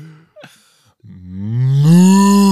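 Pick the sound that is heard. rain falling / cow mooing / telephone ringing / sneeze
cow mooing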